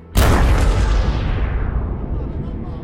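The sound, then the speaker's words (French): A landmine blast goes off beneath a jeep being driven in the Beqaa plain in Lebanon: one sudden, deafening boom that rolls into a long, heavy rumble, fading slowly over a few seconds with no voices. “Un jour qu'il est conduit en jeep dans la plaine de la Beka au Liban, le véhicule saute sur une mine. Une explosion si violente que les deux hommes à l'avant meurent sur le coup.”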